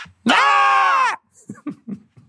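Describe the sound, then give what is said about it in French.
Several voices, on the count of three, let out one loud, drawn-out shouted cry imitating actor Michel Blanc, lasting about a second, its pitch sagging at the end, followed by scattered laughter and brief murmurs. “Et puis là, euh, on est obligé de sauter. Et alors, à trois, on crie comme Michel Blanc.”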